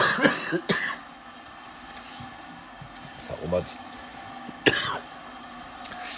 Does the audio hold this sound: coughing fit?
yes